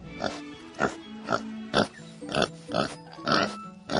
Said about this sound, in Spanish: Y cerca de allí, en un cerro, había muchos cerdos comiendo.